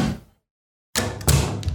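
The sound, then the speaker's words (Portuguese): A heavy wooden tavern door is flung open after a brief silence, with a loud thump and rattle followed by a second solid knock, no voices. “De repente, a porta da taverna se abre”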